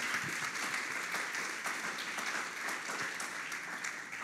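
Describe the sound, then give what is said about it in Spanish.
A crowd applauds steadily, a dense wash of many hands clapping at once, sustained throughout without anyone speaking. “Dáselo fuerte.”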